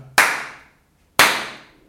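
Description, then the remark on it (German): Two sharp hand claps about a second apart, made as a marker so an intro can be inserted in editing, each a loud, bright snap with a short decaying ring, with no talking. “ich klatsche mal, damit ähm, Richard vielleicht ein Intro einfügen kann.”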